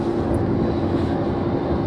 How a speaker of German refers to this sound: ich bin momentan im Auto. Ich nehme doch diesmal im Auto auf einfach weil ich keinen anderen Zeitslot finde und diese Autofahrerei, bin heute doch mehrere Stunden unterwegs